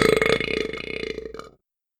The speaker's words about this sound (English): A few of the other buttons weren't quite as exciting. One gave them a slightly painful back massage, and another let out a loud belching sound.